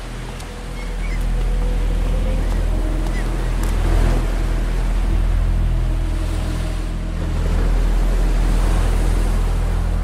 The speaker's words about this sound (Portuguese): Olha, poupar seus esforços nem adianta gritar. Que o som das ondas batem aqui nas pedras e abafa o seu grito.